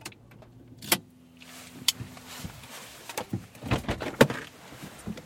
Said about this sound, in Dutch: zijn in de auto gestapt en naar dierenpension Adventure eh, gereden. Dat ligt in het Friese dorpje Kootstertille.